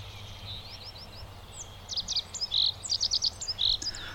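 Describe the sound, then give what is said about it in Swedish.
High, thin bunting-like bird song: a few soft introductory chirps, then a bright run of quick repeated notes, clear over a low steady background hum. “Ljust. Ganska sparvlikt, va?”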